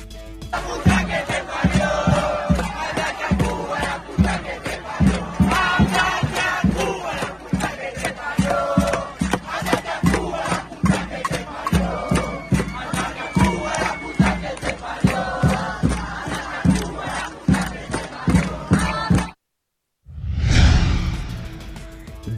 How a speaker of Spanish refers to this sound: Miles y miles de personas salieron ayer a manifestarse y se volcaron a las calles de este país sudamericano. Así, así se escuchó la movilización.